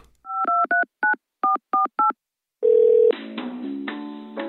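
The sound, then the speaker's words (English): A telephone number for the What is a Hotline Hotline is dialed with about eight short, evenly spaced touch-tone beeps, each a clear two-pitch chime, followed by a steady tone and a louder burst of layered ringing or hold sounds. “there's actually a what is a hotline hotline that you can call. So, Cat, let's call that right now.”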